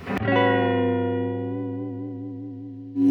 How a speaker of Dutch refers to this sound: Klinkt mooi, man. Hè. Ja, en een Bixby, hè, dat vind ik toch wel de, is toch wel de, de fijnste tremolo die er is, vind ik.